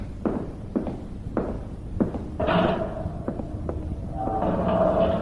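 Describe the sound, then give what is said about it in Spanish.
A few steady footsteps thud along as a night watchman walks out, then he swings the door shut with a thump and a faint creak, followed by a low, muffled rumble as the room settles. “El sereno salió cerrando la puerta.”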